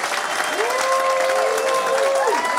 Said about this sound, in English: I'm not telling you to clap because it's exciting or it makes a great noise. It's, it's what God wants us to do, it's what He commands us to do. Come on, let's clap our hands right now.